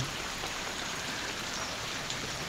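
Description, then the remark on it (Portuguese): Steady rain falling on trees, a dense, even hiss of drops with no pauses, moderately quiet and continuous throughout, with no voices. “o quanto ver as árvores recebendo chuva me trouxe paz”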